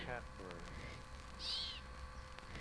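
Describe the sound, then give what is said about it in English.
Imitation bird calls made with decoy whistles and recorders to recreate birds for the opening segment of a piece of music: a few short hooting, owl-like notes at the start, then a bright, high chirping call midway over a steady low hum. “used decoys and recorders to recreate the sound of birds for the opening segment of one of his masterpieces”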